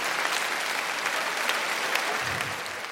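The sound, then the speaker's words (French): Steady audience applause fills the whole clip, a dense crackle of many hands clapping at an even, fairly loud level with no voices breaking through. “Euh, non, mais peux pas applaudir ça.”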